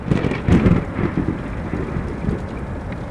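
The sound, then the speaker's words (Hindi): Steady, dense rain pours down with a deep, rolling rumble of thunder swelling underneath, loud, with no voices present; rain beginning on the hilly road on the Chhutmalpur route to Mussoorie. “हम जैसे ही खाड़ी पहाड़ी वाले रास्ते पर घुसे बारिश शुरू हो गई”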